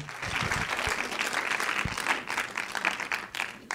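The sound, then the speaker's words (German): A live audience claps steadily to welcome a guest, a dense, sustained wash of applause from a crowd, with a few low thumps mixed in and faint voices underneath. “Und lasst uns ihm einfach mit einem ganz herzlichen ähm, Berliner Applaus willkommen heißen.”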